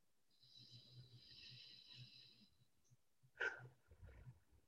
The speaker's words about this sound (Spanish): Inhala visualizando que esas cosas están llegando a tu vida. retiene el aire y suelta vamos a tomar una respiración profunda más.